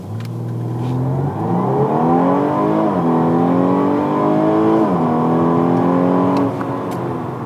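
The engine of a new Audi A5 car on a test drive pulls hard through several gears, its tone climbing steadily, dropping at each shift around every two seconds, then rising again. Loud and continuous, with no talking.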